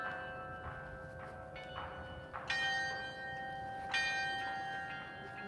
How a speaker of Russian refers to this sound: А эти колокола, они типа играют в разные тональности. А, так это, это вот эти колокола, которые с боков, да, они люпают.